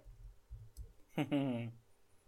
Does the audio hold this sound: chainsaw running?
no